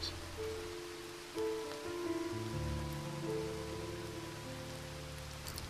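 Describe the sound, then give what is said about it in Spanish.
Steady rain falls at a funeral with a constant, even hiss, heard beneath sustained, low musical tones that swell and shift. No one speaks. “Las palabras del sacerdote sacaron a Jorgen del trance no había notado que la gente ya empezaba a marcharse debido a la lluvia.”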